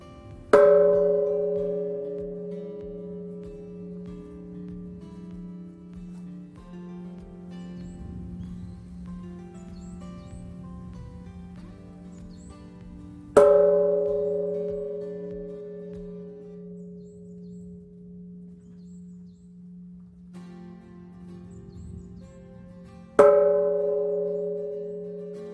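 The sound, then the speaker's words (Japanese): The Gedatsu Bell, a large bronze bonshō at Kasagi-dera temple in Kyoto, Japan, is struck three times. It is an Important Cultural Property, cast in 1196 (Kenkyū 7), with a rare six-petal lotus design. Each deep, resonant boom swells and hums into a long shimmering decay before the next strike, with no voices. “重要文化財指定の笠置寺・解脱鐘。貴重な六葉蓮弁の梵鐘。”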